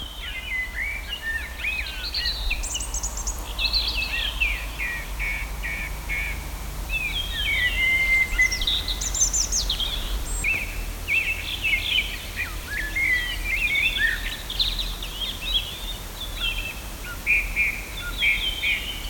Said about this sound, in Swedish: för mina otränade öron så låter det som ett sammelsurium av fågelsång, men lyckas du identifiera? Ja, jag förstår dig nog. Det, det, det låter råddigt, men, men det var ganska klart och redigt.